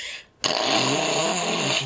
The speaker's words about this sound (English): just blow my nose and be like, "Hey, thanks for it, man. I really needed that."